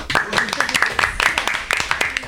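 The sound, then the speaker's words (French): An audience applauds: a dense, irregular patter of many hands clapping, sharp and bright, holding steady at a moderate level for a couple of seconds. “on peut l'applaudir, parce qu'elle est multicasquette.”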